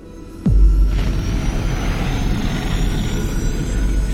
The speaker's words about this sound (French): Une détonation épouvantable, inouïe, surhumaine, dont rien ne saurait donner une idée. Ni les éclats de la foudre, ni le fracas des éruptions se produisit instantanément une immense gerbe de feu jaillit des entrailles de la terre comme d'un cratère.